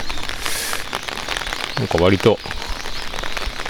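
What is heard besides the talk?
rain falling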